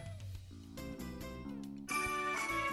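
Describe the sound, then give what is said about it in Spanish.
A school-bell alarm sound from a phone alarm app plays alone as a steady electronic melody of sustained tones, turning brighter and louder toward the end, with no voices. “Esto es la alarma del cole, por ejemplo. Una alarma, pues normal.”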